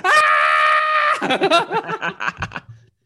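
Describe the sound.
A voice imitates a loud, sustained shocked scream lasting about a second, on seeing that a film was only half over, then breaks into rapid, choppy vocal bursts like excited laughter or gasping that trail off.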